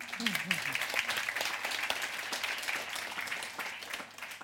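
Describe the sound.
An audience breaks into steady applause, a dense crackle of many hands clapping at an even level throughout, with a brief voice heard at the very start before the clapping dominates.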